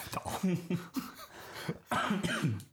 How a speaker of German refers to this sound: Hör auf zu husten, ey. Es tut mir in den Ohren weh.